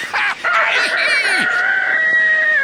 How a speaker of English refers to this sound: Very early in the morning, the rooster sends out his call and the chickens begin to wake.